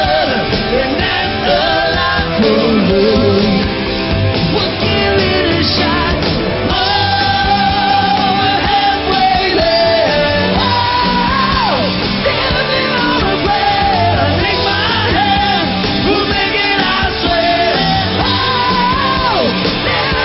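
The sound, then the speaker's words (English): A loud, dense live rock performance for The Tube TV show on Channel 4, with driving drums and guitars, a strained, shouted vocal line soaring over the top, sustained and energetic throughout. “So he was screaming it out there quite well.”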